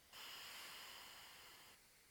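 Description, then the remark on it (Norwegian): A single steady exhale through the right nostril while the left nostril is held closed, during a breathing exercise, an airy hiss lasting nearly two seconds, fairly quiet, with no talking. “Lukke venstre, puste ut gjennom høyre.”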